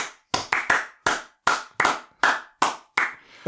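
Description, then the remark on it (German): A short burst of hand clapping, about nine or ten sharp claps at a slightly uneven pace, like one person giving a small round of applause, with no voices. “An dieser Stelle vielleicht auch nochmal ein großes Dankeschön an Niklas und einen kleinen Applaus.”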